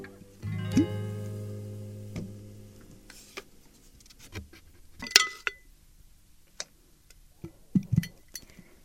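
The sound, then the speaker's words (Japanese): A coaster is slipped into a glass jar to store it: an opening ringing clink with a sustained tone, then scattered small taps, scrapes and clicks of glass and cardboard, with a sharp clatter midway. “今日もじゃあこのコースターをガラスの瓶に入れて保存したいと思います”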